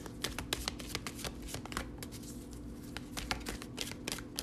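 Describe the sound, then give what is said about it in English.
Tarot cards being shuffled to draw a few cards for a daily general reading, a steady run of quick papery riffles and snaps repeating over several seconds, with no talking. “just gonna get a few cards today and see how things are going for us.”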